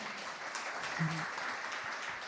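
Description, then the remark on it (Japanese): A steady wash of audience applause, many hands clapping continuously at a moderate level for a couple of seconds, with a brief faint tonal hum midway, following a spoken declaration at a Tokyo Move Up Team 2020 event. “つい拍手したくな、ね、”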